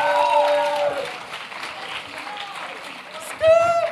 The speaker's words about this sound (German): Und deswegen ähm, können wir unseren Jugendleiter mal mit einem tosenden Applaus hier auf die Bühne willkommen heißen.